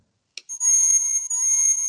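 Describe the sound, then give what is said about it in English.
A phone alert tone from a device called a tricorder: a quick click, then a loud, steady, high-pitched electronic tone that holds, breaks briefly, and resumes. No one speaks over it. “this is this is why we generally mandate no phones.”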